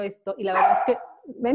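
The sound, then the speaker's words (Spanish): The speaker's dogs bark in a few short, sharp bursts, mixed in with a person speaking over them. “perdón por mis perros, oigan, olvidé decir esto al principio.”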